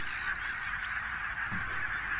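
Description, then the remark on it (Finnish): A dense chorus of goose honks, continuous and fairly loud, with sharp yelping calls that sound a bit like a dog barking, no talking. “Mutta tässä täs kuuluu nyt se ääni, niin on, kuulostaako tämä nyt koiran haukunnalta?”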